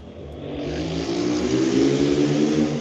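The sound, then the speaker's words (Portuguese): A Harley motorcycle engine revs up loudly, its deep rumbling growl rising and holding steady for a few seconds with no talking over it. “Essa aí é Harley com certeza.”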